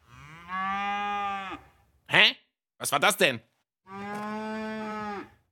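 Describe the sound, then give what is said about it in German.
A cow moos twice, each a long, loud, steady low call of over a second, with a brief bit of puzzled talking in between. “Also wenn mich nicht alles täuscht, hat da gerade jemand gemut.”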